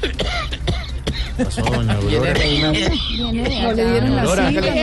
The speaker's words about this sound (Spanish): Vea que hoy fui allá con esta tos impresionante para que me mandaran algo.